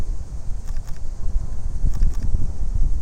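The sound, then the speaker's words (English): A steady high-pitched insect drone, like cicadas, hangs over gusty low wind rumble outdoors, with a few faint clicks and no voices. “You can listen to the cicadas and the wind and the cars going by.”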